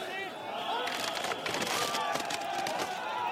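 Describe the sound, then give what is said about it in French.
A dense, agitated crowd of farmers and police roars and shouts as a surge pushes forward at the exhibition park at Porte de Versailles in Paris, with a burst of clattering metallic impacts as a barrier gives way under the pressure and people fall into a goat enclosure. “cette séquence impressionnante d'une barrière qui a cédé après euh, un mouvement de foule.”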